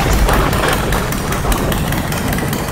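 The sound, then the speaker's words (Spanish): A motorcycle that has stopped close by idles during a storm, a steady low rumble with a rough, chugging texture that holds at a constant level throughout, with no voices. “Pero, pero, ¿qué es eso? ¿La moto? Sí, que se cerca de aquí.”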